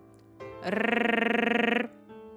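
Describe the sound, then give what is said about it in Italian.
A single voiced tongue trill done as a vocal warm-up exercise, a rolled-r buzz held steady on one pitch for about a second with a rapid fluttering pulse, fairly loud, with a soft hum before and after. “quindi il suono muto a bocca chiusa, il lip roll, il tank trill.”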